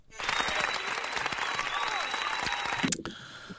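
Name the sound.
hands clapping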